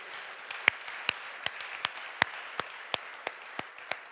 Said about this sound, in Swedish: Kan vi inte ge er en varm applåd? För det gjorde vi inte igår.